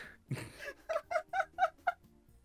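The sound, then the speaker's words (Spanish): A playing female pet cat lets out a quick run of five short chirping meows in an even rhythm, clear, after a brief low rustle at the start. “ah, juega la gata, weón.”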